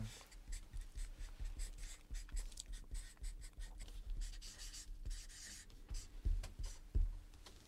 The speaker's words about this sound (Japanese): そちらの色紙に書いていただけるでしょうかはいわかりました書きます